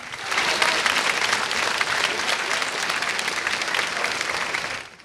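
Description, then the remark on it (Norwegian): An audience claps steadily for about five seconds, a dense, even wash of many hands that swells in quickly, holds at a strong level, then fades away at the end. “og nå, nyter vi applausen!”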